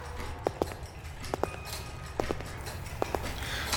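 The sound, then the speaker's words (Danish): Many clocks tick in unison in the time room of the Time Bank, with machines counting every second. Sharp paired tick-tock clicks repeat steadily about once a second over a low, continuous mechanical hum, with no voices. “Prøv at høre, hvordan de der mange uger tigger i takt med hinanden. Og maskinerne, der bare tæller.”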